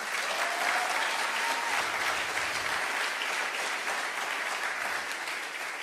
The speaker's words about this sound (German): Give yourself a hand. Also mach ein bisschen Lärm, wenn du das glaubst.